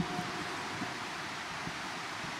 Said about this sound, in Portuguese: Olha que beleza, hein? Tá vindo forte, né? Fez barulho a chuva